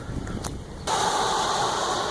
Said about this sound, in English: I am standing on Route 309 in Quakertown. Not sure if you can hear me over all the traffic